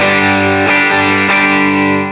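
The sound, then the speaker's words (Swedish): A loud, thick electric guitar chord played through a germanium overdrive circuit rings out and is re-struck twice, about every half second, sustaining with a warm, fuzzy saturation and no voices. “Jag tycker ändå att det här eh, Germanium-tricket i den här kretsen eh, låter gött.”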